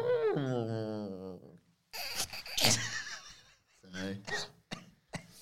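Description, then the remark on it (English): A voice imitates an elephant-cow hybrid call: a long, wavering, trumpeting moo, followed by breathy bursts and choppy laughter-like noises. “What would it sound like if the... Um if the elephant and the cow procreated”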